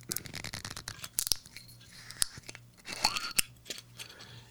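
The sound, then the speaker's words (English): Someone opens a bottle of Toyo Bijin sake, with crinkly tearing of a seal and several sharp plastic clicks and snaps at irregular intervals, and no talking. “All right, I'm going to open mine up.”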